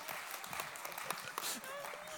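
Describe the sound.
An audience claps steadily, many overlapping hand claps forming a dense, even patter for a couple of seconds, with murmuring voices mixed in underneath.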